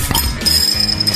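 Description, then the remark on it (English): Glass beer bottles clink together, one sharp bright knock followed by a thin, high ringing tone that lingers for about a second, with no voices. “Sit back, relax and crack open a beer or 20.”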